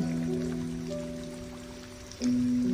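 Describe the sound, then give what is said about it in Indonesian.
Steady rain patters softly over a low, sustained tonal hum, with a brief swell in loudness near the end as the hum shifts pitch. “Hujan lalu henti.”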